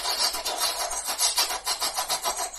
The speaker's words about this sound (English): noise of this thing grinding and chopping. It's clearly designed to float slightly, very slightly above the ground. It's only cutting vague strips flattening the grass rather than shredding the ground entirely.